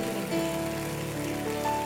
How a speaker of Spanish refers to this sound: Y juntos en esta mañana, Señor, te damos gloria, te damos honra y todos los que nos están viendo allá en casa también participan con nosotros y juntos exaltamos a Jesús en esta mañana con un fuerte aplauso. Glorifiquemos al Señor.